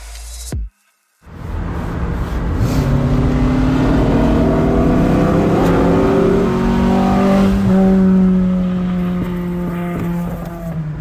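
A four-cylinder classic car, a 02, revs up and accelerates past while overtaking, recorded with a phone's dictation function, its pitch climbing steadily through the gears, loud and continuous after a brief silent gap at the start.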